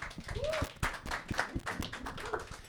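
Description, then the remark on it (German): Audience applause at a live stage show, kept going as the next guest is brought onto the stage: a steady run of sharp, irregular claps with a few louder bursts, mixed with scattered voices and a short rising whoop or call among the crowd. “Genau, bitte haltet den Applaus und äh, macht nochmal.”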